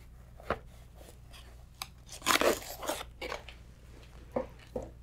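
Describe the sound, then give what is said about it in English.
Squeezing a jumbo bead-filled stress relief ball bought from Amazon makes crisp, crunchy squishes. A few short crackles are followed by a louder, longer grinding burst, then scattered softer crunches, over a faint steady hum. No one speaks. “I got this squishy ball from Amazon. It is a jumbo stress relief ball.”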